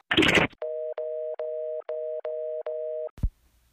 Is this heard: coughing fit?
no